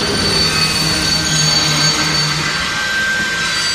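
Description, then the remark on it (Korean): A train near Cheongnyangni Station brakes urgently to a sudden stop to avoid hitting a child on the tracks. It grinds along the rails with a loud, steady metallic squeal of brakes over heavy rumbling, sustained throughout without letting up. “급하게 기차를 세운 다음 하마터면 기차에 치일 뻔한 나를 구해주신 분이요.”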